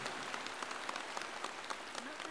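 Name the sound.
applause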